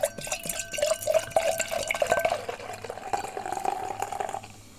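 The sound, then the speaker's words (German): Beer glugs and splashes steadily from a bottle into a glass. The bottle has a protective cap on top and a normal crown cap. It is a gurgling pour whose pitch slowly rises as the glass fills, with small bubbly clicks throughout and no voices. “Ich mache es mal kurz auf. Das hat hier nämlich erstmal oben so eine Schutzkappe und dann einen normalen Kronkorken”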